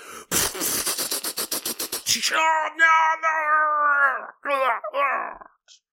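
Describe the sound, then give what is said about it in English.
A voice imitates screaming aliens: first a rapid, rattling burst like gunfire or sputtering, then long, wavering high-pitched wails and shrieks, loud, ending in a couple of shorter cries. “The aliens are all screaming and stuff”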